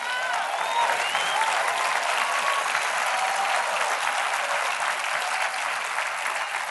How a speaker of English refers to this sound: Well, if you're going to clap, you got to clap.